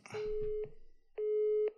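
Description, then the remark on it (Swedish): Two steady electronic telephone tones sound on an outgoing call, each about half a second long with a brief gap between, the first with faint background chatter underneath. “Ja, men nu ringer han, tror jag.”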